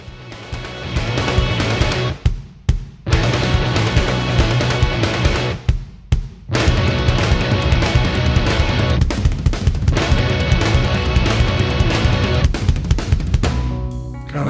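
A loud, dense stretch of progressive rock plays continuously by a full band, broken by a couple of abrupt, brief stops near the start before the heavy groove resumes.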